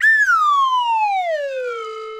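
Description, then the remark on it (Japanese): A single loud wave whistle tone glides steadily downward in pitch over about two seconds, a smooth falling slide with no pauses and no voices. “ちなみに、えー、笛は私専用そして、えー、常にですね茎口等々は、えー、念入りに消毒して使用させていただいてます衛生管理衛生管理も完璧でございます、はい、このウェーブホイッスルの音で表現しつつ”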